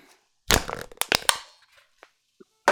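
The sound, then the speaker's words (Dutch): An empty drink can is crushed, a loud burst of crinkling metal with sharp cracks over about a second, then a few faint creaks and one more brief crunch at the end. “Ik kan het blikje wel kraken.”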